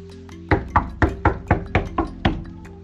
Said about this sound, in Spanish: alguien tocó la puerta. Rab Mijael fue, abrió y encontró una persona